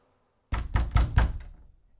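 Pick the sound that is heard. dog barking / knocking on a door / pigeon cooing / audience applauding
knocking on a door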